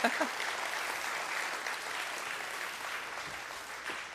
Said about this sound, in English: go ahead and give them a nice welcome round of applause.